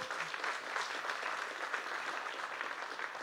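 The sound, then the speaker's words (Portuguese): At a church service, a crowd claps steadily together in applause to the Lord, a dense, sustained burst of applause at moderate loudness, with no individual voices standing out. “Pode aplaudir ao Senhor.”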